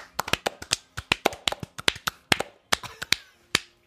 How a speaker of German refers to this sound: Also dafür mal kurz äh, Applaus und damit es mehr nach Sex klingt...